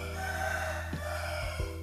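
Chickens cluck over a steady background hum, with a rooster's crow rising among a few short, throaty calls. Brief, with no one speaking.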